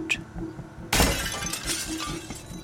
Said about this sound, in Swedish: Då smällde det till och tusentals bitar glassplitter flög rakt emot mig. Jag kastade mig ner på golvet för att ta skydd. Fönstret till sovrummet hade krossats och den kyliga luften, blandad med regndropparna, vällde in i rummet.